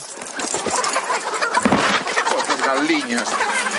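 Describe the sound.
Chickens cluck and squawk in a flurry as a man shoos them away behind a brothel, with scuffling and a voice mixed into the busy commotion that continues steadily throughout.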